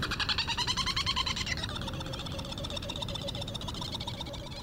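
Herald (Trindade) petrels, gadfly seabirds, call over and over while flying around their breeding colony on Round Island near Mauritius in the Indian Ocean, in a dense, overlapping chorus of rapid, trilling cries, steady and fairly loud throughout, with no voices.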